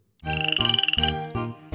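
A rapid, rattling frog croak trills for under a second at a fairly high pitch, layered over loud, sustained musical tones that shift a few times.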